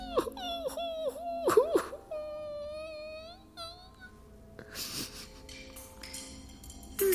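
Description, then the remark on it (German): A high, wavering voice whimpers and wails in drawn-out, sobbing cries with sliding pitch, fairly loud, trailing off into softer breathy sounds toward the end. “Ich möchte jetzt nur noch weinen.”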